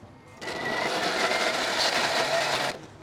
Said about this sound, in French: On va mixer l'ensemble pour en faire une pâte euh, lisse. Alors ça va faire un peu de bruit. Attention.